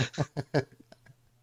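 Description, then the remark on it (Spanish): A parrot sound effect played by pressing a button: four harsh, loud squawks in quick succession, followed by a few softer, fading chirps, with no voices over it. “El loro tiene que salir siempre.”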